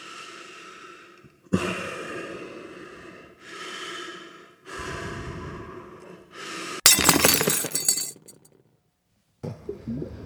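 Several heavy, breathy rushes of sound give way to a sudden loud, sharp crack of a plexiglass (synthetic resin) window splitting inside a bathyscaphe deep underwater, followed by a short crackle and a brief silence. No one speaks.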